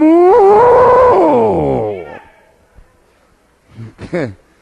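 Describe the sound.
During a sermon, a voice imitates a long, loud, drawn-out cow moo, then after a short quiet gap gives a brief, wavering sheep-like bleat, as the animals Saul kept were heard when Samuel came to his camp in the biblical story.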